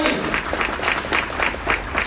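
An audience claps steadily for a participant who has just done a public-speaking exercise, a dense wash of many hands with a brisk rhythmic pulse, loud and sustained for the full two seconds with no one speaking over it.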